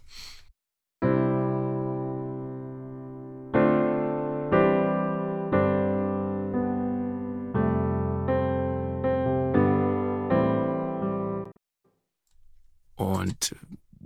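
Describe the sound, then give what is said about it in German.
A string instrument plays about ten sustained notes and chords at a moderate volume through a long modern plate reverb preset, each ringing out with a long, smooth plate-style reverb tail before fading into a brief rustle. “Und jetzt nehmen wir mal was Schönes, Langes. Modern Gitterhall.”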